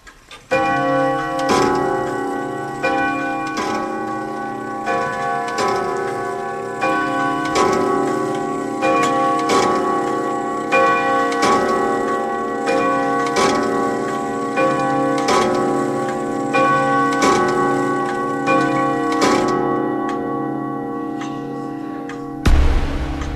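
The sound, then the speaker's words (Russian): An antique mechanical clock that once stood in the Mamontov house ticks steadily, each tick ringing with a faint metallic resonance. No voices, and a sharper knock comes right at the end. “Ну вот эти часы жили в доме Мантовых, ходят, видите, не зря я магнитофон брал с собой.”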